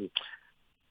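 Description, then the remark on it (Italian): A phone line drops out: a scrap of voice cuts off abruptly, then a brief hissy, garbled burst with a thin high tone fades away into near silence. “Eh, non so se è caduta la telefonata, credo.”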